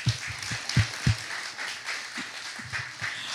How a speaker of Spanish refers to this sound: Den un aplauso a todos los que regresaron de la clase.